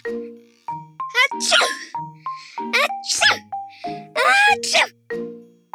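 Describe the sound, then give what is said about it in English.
A rapid series of loud sneezes from a cartoon ice cream character in a refrigerator, several in a row, mixed with bright dinging and clanging cartoon-style sound effects, packed densely together with barely a pause. “Ice cream kept on sneezing constantly and wildly.”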